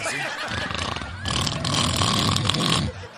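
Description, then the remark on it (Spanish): A voice imitates Ninel snoring while asleep, a harsh, rattling, throaty rasp with snorting grunts that builds into one long, sustained snore lasting a few seconds. “¿Usted cree que Ninel con ronque, diva? Sí, claro, imagínate tan cansada la pobre.”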